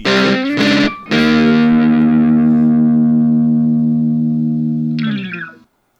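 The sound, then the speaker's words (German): A loud, distorted electric guitar riff: three quick chopped stabs, then a long sustained chord ringing for about four seconds before a brief gritty scrape and abrupt stop. No talking. “Ich muss sagen, ich bin immer noch fasziniert, dass dieses E-Gitarren-Ding so cool klingt.”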